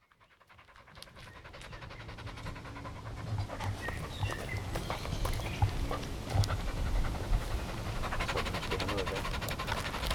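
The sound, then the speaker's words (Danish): A small dog pants rapidly and steadily, quick rhythmic breaths that grow louder after a quiet start and continue throughout with no talking. “Skal vi lige have noget vand, lille hund?”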